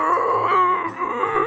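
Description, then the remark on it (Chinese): A voice imitates the strained grunting made while trying and failing to move the body during sleep paralysis: a continuous tense, groaning sound held for about a second and a half without a break, loud and wavering in pitch. “而且我记得我还在那个过程当中，就是发出这种很用力的声音。”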